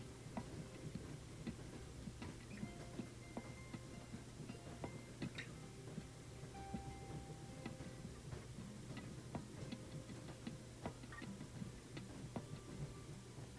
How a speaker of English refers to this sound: The cadence of the train slows. Eventually, grinding to a halt in the middle of a meadow divided by the azure river.